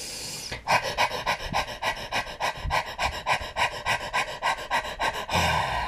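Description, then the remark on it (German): A person demonstrates the panting breathing technique used during labor contractions, imitating a dog's panting: rapid, shallow breaths in a steady rhythm of about a dozen or more quick puffs, clear, framed by a longer breath at the start and end. “Beim Hecheln bewegst du die Einatemluft praktisch im Mund hin und her. Und das klingt dann so, als wenn ein Hund hechelt.”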